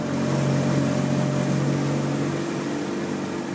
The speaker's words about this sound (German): Pirogen, das sind spitz zulaufende einmotorige Boote, mit denen man hier den Fluss überquert die Grenze zwischen Frankreich und Brasilien.